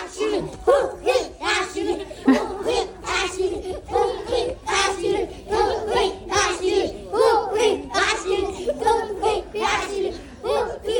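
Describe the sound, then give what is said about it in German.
A crowd of children in western Rwanda, near the border with Congo, shouting and cheering together in loud, overlapping bursts, with excited voices rising and falling in a steady rhythm throughout. “also man hat immer ein sehr ähm, williges und, äh, Publikum gefunden. Haufen Kinder, die anlängen und denken, oder davor rennen, weil es die weiße Frau sehen.”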